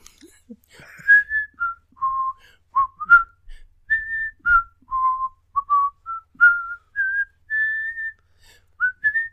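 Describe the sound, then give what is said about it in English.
A person whistles the Sesame Street theme tune, a bouncy string of short, clear notes rising and falling in a steady rhythm with no talking. “Sesame Street.”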